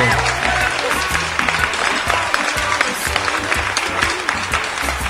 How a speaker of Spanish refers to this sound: Estuvo con nosotros, claro que sí, aplauso fuerte.